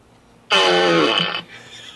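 A single loud, drawn-out fart sound effect, buzzy and rasping, lasting about a second before cutting off abruptly, heard alone with no talking.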